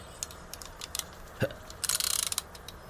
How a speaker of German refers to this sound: Und jetzt tickt es. Wie bei einer Eieruhr.